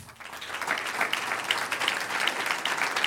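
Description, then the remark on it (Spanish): A church audience breaks into sustained applause for the Lord, a dense crackle of many hands clapping steadily for about three seconds with no voices standing out. “un aplauso al Señor.”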